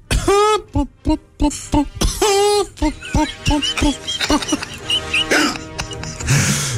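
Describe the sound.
A person imitates a coughing hen, letting out a quick string of short, throaty clucking bursts in an uneven rhythm, with a couple of longer squawk-like calls mixed in.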